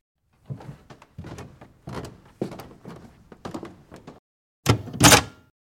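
A door is being opened: a string of soft clunks and rattles from the handle and latch, then a louder, sharper thud near the end, with no talking.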